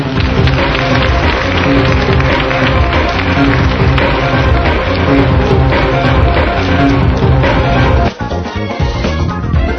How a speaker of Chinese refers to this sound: 大家为美女鼓鼓掌好吗？